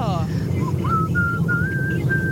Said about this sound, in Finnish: Oi, Tässä on aika hienosti, hienosti, hienosti, hienosti vihelletty, kyllä.